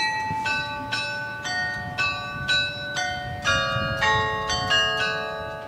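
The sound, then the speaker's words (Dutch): Bells in Baal ring repeatedly in a steady sequence of bright, overlapping strikes, each leaving a lingering metallic hum, with a soft background rumble underneath and no voices. “De, het geluid van, van die klokken, van, dat is een heel ander geluid dan, dan gewoon klokken.”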